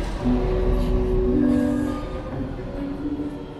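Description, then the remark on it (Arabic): A metro train rumbles steadily along the rails with a heavy low-end roar, faint tonal whines and squeals rising above the clatter, continuous throughout. “وحاولت جاهدا التركيز منتظرا اسم المحطة لكن الأصوات كثيرة القطار رجل وامرأة تتحدثان طفل يلعب ويضحك عازف دخل إلى القطار باحثا عن رزقه”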